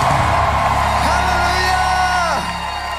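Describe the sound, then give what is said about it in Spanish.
A crowd lets out a victory cry: a loud, sustained collective shout and whoops, voices rising together in a triumphant roar that swells and then falls away. “Un grito de victoria.”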